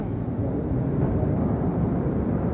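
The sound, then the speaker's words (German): A special Warsaw–Berlin train rolls into a station hall, a steady, heavy low rumble that fills the space without pause, fairly loud, with no voices over it. “Der Sonderzug Warschau-Berlin läuft in die Bahnhofshalle ein.”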